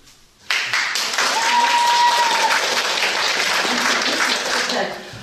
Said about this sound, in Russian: Овации в зале и эмоциональное высказывание зрителей тому доказательство.